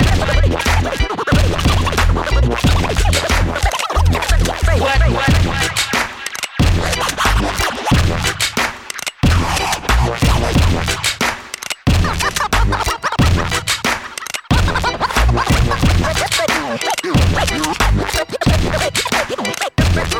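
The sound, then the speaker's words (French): DJ turntable scratching, loud and continuous, with rapid rhythmic back-and-forth cuts and sharp stuttering bursts over a heavy beat, no voices. “Scratch.”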